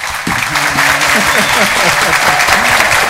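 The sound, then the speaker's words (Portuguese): Steady audience applause, a dense wash of clapping that stays loud and even throughout, with indistinct voices murmuring underneath. “Belíssimo. Palmas.”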